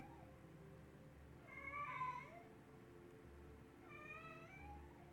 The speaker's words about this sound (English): Uh, that cat is so happy to be fed or something.